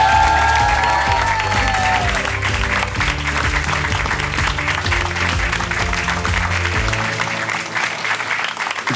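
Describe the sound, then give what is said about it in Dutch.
A studio audience applauds loudly and steadily, the dense clapping carrying on for several seconds over an upbeat musical jingle before both cut off near the end. “Een applaus voor Hans Otte.”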